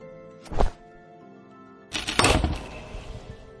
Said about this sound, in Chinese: 轰的一声，年深日久、腐朽不堪的木质甲板被孙胖子砸出来一个大洞，随后整个人掉落到下面的舱里。